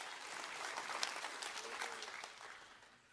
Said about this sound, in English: Come on, let's clap our hands.